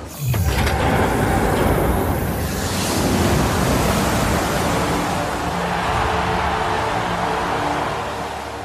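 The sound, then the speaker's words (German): A loud, steady roar of rushing water pours out continuously from floodgates opened by the ruler in the film Mad Max: Fury Road, broad and powerful like a torrent released all at once, with no voices over it. “Von Waterworld über Mad Max Fury Road, wo die Leute sehnsüchtig darauf warten, bis der böse Herrscher die Wasserschleusen aufmacht.”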